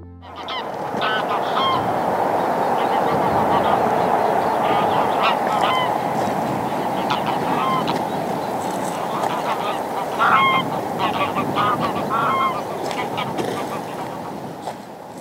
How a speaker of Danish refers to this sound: Lige der omkring, hvor Nørreåen den løber ud i, øh, i Gudenåen og henover os. Lige nu der flyver øh, nogle pæne flokke af øh, grågæs. Dem der, de sagde godt nok lidt.